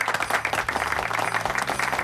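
Steady applause from an audience, a dense crackle of many hands clapping that stays fairly even for about two seconds, with low music humming faintly underneath, greeting the Spanish monologue champion as a guest on the morning show of Asturian regional radio RPA.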